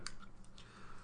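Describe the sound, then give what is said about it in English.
A can of Monster punch energy drink cracks open with a single sharp click, followed by a brief, soft fizzing hiss that fades over about a second. “So this is the sound of us opening our uh, our monster punch, right?”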